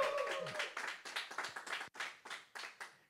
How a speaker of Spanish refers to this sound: Si lo crees, dale un aplauso fuerte al Señor. Vamos a darle un aplauso fuerte al Señor. Dale un grito de victoria en esta tarde.